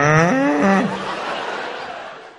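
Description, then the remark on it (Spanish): A person imitates a cow's moo, a single drawn-out, wavering low call lasting about a second, loud, trailing off into a faint background hiss. “¿Cómo no se va a volver loco una vaca si llega los del chocolate Milka?”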